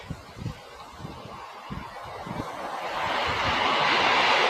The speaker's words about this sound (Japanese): 電車通っております。